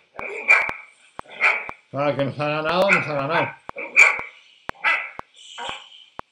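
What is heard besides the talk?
dog barking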